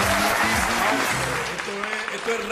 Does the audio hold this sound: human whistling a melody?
no